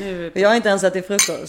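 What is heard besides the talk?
champagne glasses clinking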